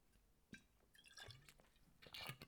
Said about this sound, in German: Und ich habe jetzt gerade einen Schluck Wasser getrunken.